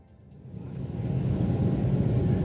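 Dense, low rumbling drone inside an airplane cabin on a flight to Graz, Austria, swelling louder over the first second and then holding steady, with a faint tonal hum above it and no voices.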